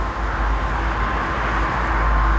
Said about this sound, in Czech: Doléhají sem zvuky aut z nedaleké dálnice.